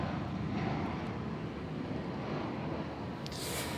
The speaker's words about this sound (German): Und jetzt kommt ein Flugzeug, das angekündigte Flugzeug kommt.